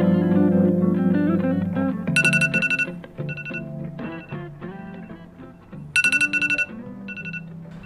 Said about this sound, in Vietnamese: mình đố mọi người biết đây là âm thanh gì nè âm thanh này có quen thuộc hay không thật ra đây chính là âm thanh đánh thức mình dậy mỗi buổi sáng